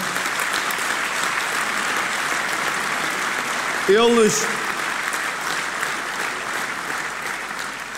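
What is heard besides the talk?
audience applause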